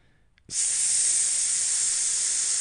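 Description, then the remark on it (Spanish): A sudden, steady hiss bursts on after a brief quiet moment and continues loud and unbroken, like gas escaping under pressure from a leaking LP gas line. Nobody speaks. “el sonido característico de una fuga de gas, hay que evacuar de inmediato”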